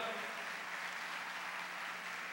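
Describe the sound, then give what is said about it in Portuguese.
A church audience applauds the Holy Spirit in a dense, steady wash of clapping that holds at an even level for the whole stretch, with a faint murmur of voices mixed underneath. “Quem acredita que o Espírito Santo mora na tua vida, habita na tua vida, aplauda Ele bem forte, diga aleluia.”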